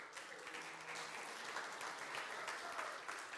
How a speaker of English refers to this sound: I hope that's clapping